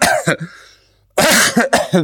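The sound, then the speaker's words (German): A person fakes a bout of coughing, pretending to be sick on a phone call to a doctor: two quick hacks, a brief pause, then three harsh, loud coughs in close succession, dry-sounding. “Nee, ich bin früh aufgestanden und mir geht's wirklich nicht so gut und mein Husten und ähm, ich habe auch sehr schlecht geschlafen.”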